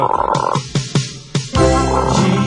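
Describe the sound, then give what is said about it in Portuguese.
A small pet frog croaks loud, first a buzzy call broken by a few sharp raspy pulses, then a longer, steady droning croak. No one speaks. “Quieto, pequeno sapo. Quieto.”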